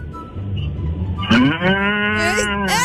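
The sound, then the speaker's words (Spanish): A cow lets out a long, loud moo starting about a third of the way in, its rich harmonic bellow rising and falling over a low rumbling background with no speech. “Esa fue una vaca que nos llamó.”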